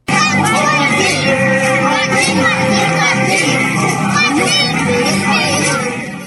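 A group of Indigenous children in Curitiba, Paraná, shouting and chanting in their native language in a steady, loud stream as they walk together, many young voices overlapping with rising and falling calls, like a crowd of kids marching and yelling in unison.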